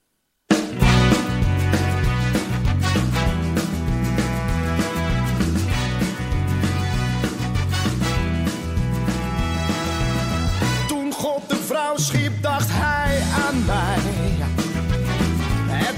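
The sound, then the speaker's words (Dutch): A Dutch-language pop song plays loud and full from start to finish, with a steady driving beat, thick bass and layered instruments, and a brief shift in texture near the end. “hoe kom ik bij zulke soort muziek? en ik, ik zal heel eerlijk toegeven dat ik heb wel een kleine voorliefde voor, voor Nederlandstalige muziek”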